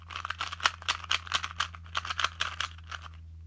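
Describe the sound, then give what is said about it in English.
A 2x2 Rubik's cube being twisted rapidly, a quick run of dry clicking and rattling turns, with a steady low hum underneath and no voices. “The answer the answer was it was a Rubik's cube. Specifically, take a guess, a 2 by 2.”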